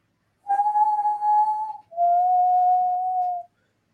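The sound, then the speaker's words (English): A person whistles two long, steady notes, imitating a whistle they once heard. The first note is slightly higher than the second, each held for over a second with a brief gap between them. The whistling is clear, with no talking. “he he tries to do this whistle thing because he heard it once. I'm not the best whistler.”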